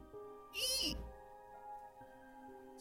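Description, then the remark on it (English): A voice imitates a creaking wooden squeak: one brief, loud squeal that bends up and back down in pitch, then fades into a quiet, humming background. “squeak of wood.”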